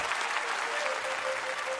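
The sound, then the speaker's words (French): Steady applause from many people on the Socialist benches of a parliamentary chamber, a dense, even patter of clapping that holds at a constant moderate level throughout, with no voices standing out. “Applaudissements sur les bancs socialistes tous les députés comprennent l'allusion.”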